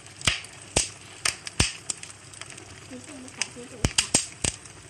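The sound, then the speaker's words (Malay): Irregular sharp pops and snaps of trees burning at a fire crackle over a low steady roar, about a dozen distinct bursts scattered unevenly, moderately loud. “Ini ini uh, bunyi ah, pokok-pokok uh, yang terbakar di tempat kebakaran.”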